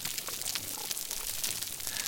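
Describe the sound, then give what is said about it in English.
A dense, steady crackling of hundreds of snapping shrimp on a reef, producing miniature sonic booms: countless sharp tiny clicks blending into a bright, fizzing hiss like frying bacon, with no voices. “the first thing that you hear is this constant crackling in the background. It sounds a little bit like frying bacon, and that's that's actually the sounds of snapping shrimp.”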